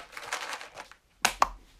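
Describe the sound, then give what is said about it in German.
Crinkling of a packet of cat treats being opened: a rustle of soft crackles, a brief pause, then two sharp crisp snaps of the wrapper. No one speaks. “dass es was gibt, weil sie diese Packung öffnen schon könnt.”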